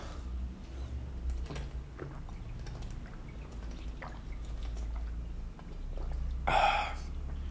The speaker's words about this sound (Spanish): Estoy tomando un agua de sandía que está buenísima.